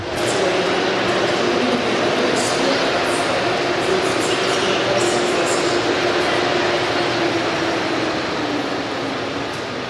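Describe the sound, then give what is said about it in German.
Steady, dense wash of ambience in the main hall of a train station, a continuous reverberant roar of crowds and machinery, with faint indistinct voices and occasional light clinks throughout. “Ja, was gibt es hier in der Haupthalle noch?”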